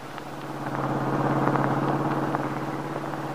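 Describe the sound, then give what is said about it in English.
A car being driven to an appointment drives along steadily, its engine humming in a low continuous drone with road rumble and faint rattles, moderately loud throughout with no voices. “Now, in another car, Max is driving Paul Cromwell to an appointment with his attorney.”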